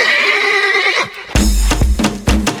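A horse lets out a loud, wavering whinny that slides downward, then breaks off into a few heavy, rhythmic thumps and snorting bursts. No one speaks.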